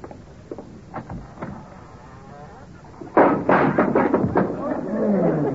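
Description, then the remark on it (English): A door falls down with a sudden heavy thud partway through, followed by several seconds of loud clattering and banging, after quieter muffled sounds and faint voices. “door needs a little tightening too, don't it? Uh, just step over the thing”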